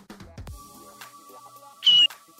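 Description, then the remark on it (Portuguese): A voice imitates an eagle's screech with one short, shrill, high-pitched squeal, loud, preceded by faint murmuring and soft background noise. “É o barulho da águia.”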